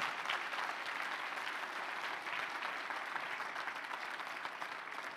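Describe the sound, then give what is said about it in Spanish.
An audience claps for the Lord, the King of Kings, steadily and loudly throughout, a dense, sustained wash of many hands with no pauses and no voices standing out. “Dale un fuerte aplauso al Señor, al Rey de Reyes, nuestro papá.”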